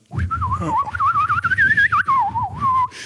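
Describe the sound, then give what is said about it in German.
A person whistles a wavering, trilling tune for about three seconds, imitating a workman's constant whistling, the pitch wobbling rapidly up and down in a warbling imitation, with low rumbling background noise underneath. “mich hat einer von diesen Handwerkern so hart genervt, weil der immer rumgepfiffen hat die ganze Zeit und auch so einen trellerndes Pfeifen.”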